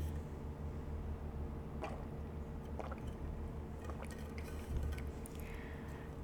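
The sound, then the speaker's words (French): Soft, wet sips of water and small swallowing sounds, a few brief liquid clicks spaced over several seconds, faint against a steady low hum, with no talking. “Je m'arrête ici, je vais prendre une gorgée d'eau.”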